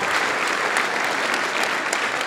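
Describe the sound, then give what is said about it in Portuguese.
A church audience applauding to the name of Jesus: steady, dense clapping from many hands at an even, fairly loud level throughout, with no voices standing out above it. “Vamos aplaudir ao nome de Jesus então?”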